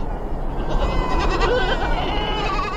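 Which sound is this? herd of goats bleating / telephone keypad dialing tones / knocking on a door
herd of goats bleating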